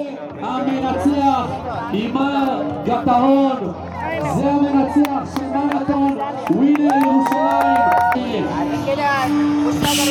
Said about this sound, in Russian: Тут призывают всех хлопать в ладоши все этими занимаются. Надо отдать им должное.